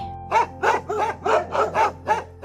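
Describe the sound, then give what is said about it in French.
Several loud dog growls rumble out in a quick, rhythmic series of about seven bursts, each a short throaty snarl, with no talking. “Au mot dîner, il y eut un grognement général.”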